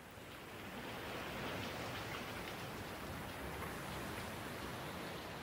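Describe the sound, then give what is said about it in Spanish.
Steady rain falls at a nature reserve, by the entrance to a boardwalk: a dense, even hiss of drops spread across the whole range, constant in level with no voices. “Al llegar a la reserva natural, cayó la lluvia, lo que nos hizo esperar un poco sentados en los bancos de la entrada al paseo tablado.”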